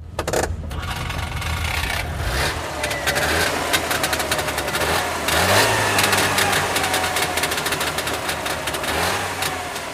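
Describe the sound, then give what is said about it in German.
The two-stroke engine of a Trabant 601S Deluxe car runs with a rattly, buzzing ring-ding-ding rhythm, a small blue puff of smoke leaving the exhaust in front of the left rear wheel; its pitch rises briefly as it revs, loud and steady throughout with no one speaking. “Wenn sich bei seinem Trabant 601S Deluxe ein kleines blaues Wölkchen aus dem Auspuffrohr vor dem linken Hinterrad den Weg ins Freie bahnt und das typische Reng Deng Deng Deng Deng Deng Deng Geräusch erklingt”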